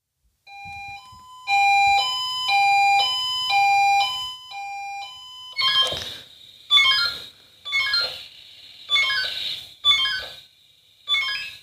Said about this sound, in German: Das ist ein alter Piepser Swiss von Quattro gewesen, der da alarmiert hat. Das war einer meiner letzten, nee, das war mein letzter Piepser als aktiver Feuerwehrmann, den ich hatte. Ich hatte noch keinen digitalen.